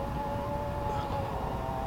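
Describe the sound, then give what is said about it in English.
Two dogs howl together in a long, steady chorus, set off by a siren outside, sounding almost like a siren themselves and holding a sustained high pitch at moderate volume throughout with no talking. “Those are my my dogs. And anytime they hear a siren out there, they, they both okay. they have a chorus.”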